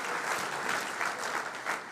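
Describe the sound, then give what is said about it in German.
Steady audience applause for the people who regularly preach, a dense wash of many hands clapping at once, sustained and fairly loud throughout with no voices standing out. “ich weiß nicht, wer von euch predigt regelmäßig, ich weiß nicht, ob ein paar Preacher hier am Start sind, komm on, einen Applaus für all die Leute, die mehr oder weniger halbwegs regelmäßig predigen.”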